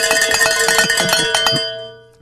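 Bells rung in celebration on behalf of the Midland team after a goal was reached: a rapid, clanging run of bright metallic strikes for about a second and a half, then the tones ring on and fade, with no talking.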